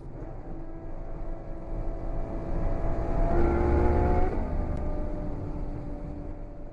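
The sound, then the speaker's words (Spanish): A car engine hums steadily, its tone rising as it revs and swells to a louder peak around the middle before easing back to a constant drone. No one speaks. “Bajamos del coche y escuchamos a Ángel y a todos los protagonistas de esta historia”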